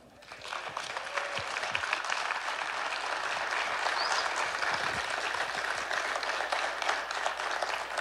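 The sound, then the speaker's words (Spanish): A standing church audience bursts into sustained applause for the Lord, a dense, steady clatter of many hands clapping for several seconds, with scattered voices and cheers mixed into the crowd noise. “Suelte la Biblia y déle el verdad ese aplauso al Señor.”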